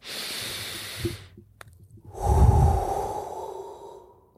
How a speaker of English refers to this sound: Let's have a breath and have have a uh, have a prayer.